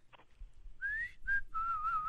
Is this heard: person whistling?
yes